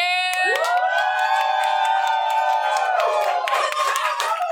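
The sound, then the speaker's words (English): A live audience cheers loudly for several seconds, a dense wash of high-pitched screams and whoops with scattered clapping, staying strong throughout. “audience, why don't you let them know how many people are here by giving us a good cheer?”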